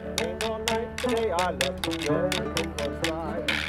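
A donkey jawbone, played as percussion by musicians performing 19th-century music, rattles in sharp, buzzy bursts as a deer antler is run over its back molars and its side is struck, in a steady rhythm about every half second, fairly loud over sung or played melodic music.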